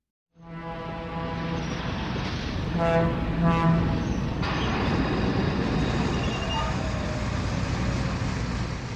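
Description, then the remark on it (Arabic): A steady, loud rumble of a train rolling along the tracks to Hyesan, with continuous low mechanical droning and harmonic whine, sustained throughout without pauses or speech. “طلب هيونغ مو من مينسو أن يصطحبه إلى منطقة هيسان مقابل زجاجة خمر وبفضل مينسو استطاع أن يتسلل إلى القطار بدون تذكرة أو شهادة ووصل إلى هيسان بعد خمس ساعات”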